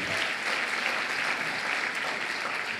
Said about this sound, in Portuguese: Vamos aplaudir a Jesus pela vida do apóstolo.